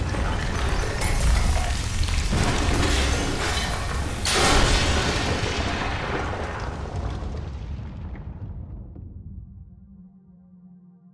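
A loud, deep rumble of thunder rolls on for several seconds with a sharp crack near the middle, then slowly fades away into quiet. No one speaks.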